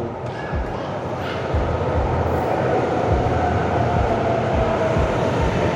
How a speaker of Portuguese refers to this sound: a criança com o pai aqui. Fofo. Olha lá. tá impressionada com o metrô chegando.